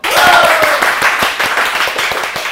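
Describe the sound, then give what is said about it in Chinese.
A burst of applause from a talk show audience welcoming a legislative candidate guest, many hands clapping in a dense, steady patter that stays loud throughout, with a faint voice briefly audible beneath at the start. “再来鼓掌一次，”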